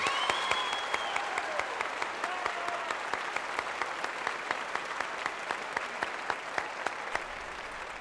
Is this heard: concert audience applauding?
yes